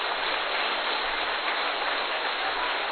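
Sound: warm applause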